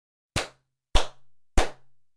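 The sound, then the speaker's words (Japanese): Three sharp hand claps in an even, unhurried rhythm, each a bright, snappy crack followed by a brief, muffled tail that dies away quickly in a room damped with a futon used as sound-absorbing material. No voices. “で、これが吸音材入れた後の音ですね。”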